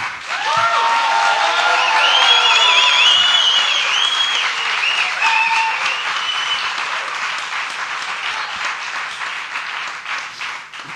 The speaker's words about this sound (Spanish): Ha sido un aplauso casi de victoria inesperada, ¿no?